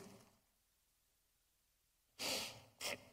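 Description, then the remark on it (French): Pages of a Bible are turned after a stretch of near silence: two quick papery rustles, the first longer and fuller, the second a brief flick. “J'entends des pages tourner.”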